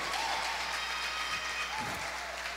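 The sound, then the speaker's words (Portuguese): A church audience applauds for fellow members from its Igreja da Paz in Quixadá, a dense, steady wash of many hands clapping at once that holds at an even level for a couple of seconds, with no one speaking over it. “Queria pedir uma salva de palmas pela vida deles também.”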